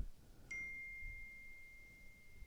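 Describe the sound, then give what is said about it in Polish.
A single bright electronic ding from a phone's text message notification rings out with a sharp attack, then a pure tone holds steadily and fades slowly over a couple of seconds above a low background rumble. “a jeszcze mi przyszedł SMS, że muszę kurde zapłacić kasę za ten za rachunek um, za telefon.”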